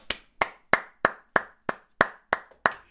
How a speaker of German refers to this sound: Großen Applaus für